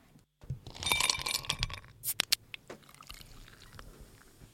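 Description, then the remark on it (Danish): Drinking glasses clink together in a toast, a few bright chiming taps among light rustling and handling noises, with no one speaking. “Du har hævet et glas, og så skal vi selvfølgelig have ugens drink og ugens anbefalinger lige bagefter.”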